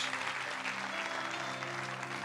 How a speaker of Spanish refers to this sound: ¿Cuántos dicen amén? Den un fuerte aplauso a Dios.